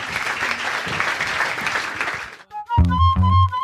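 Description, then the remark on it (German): Dense, steady applause from a crowd, a continuous rush of many hands clapping for over two seconds, then it cuts off and a bright music sting with a thumping bass begins. “Vielen, vielen Dank fürs Zuhören und ja, nochmal einen Applaus.”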